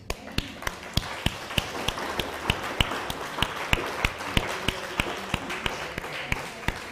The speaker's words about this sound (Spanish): Un fuerte aplauso.